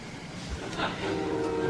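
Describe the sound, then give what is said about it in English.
Eerie, spooky Twilight Zone-style background music with drawn-out, droning tones that swell in over a hissy, murky bed of noise, sustained and moderately quiet throughout. “listen to the Twilight Zone kind of spooky, pull the face off kind of th- music mm-hmm. in the background.”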